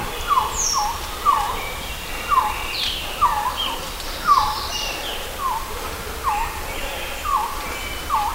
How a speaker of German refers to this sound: Einige nennen ihn den schönsten Vogel der Welt. Ist ein Vogel, den wahrscheinlich die wenigsten von Ihnen schon mal gesehen haben. Die Rede ist vom mittelamerikanischen Quetzal.